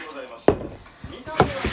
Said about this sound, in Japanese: ちょっとビール開けるね。